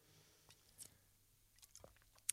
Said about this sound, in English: I need a sip of water first.